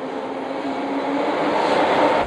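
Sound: train station ambience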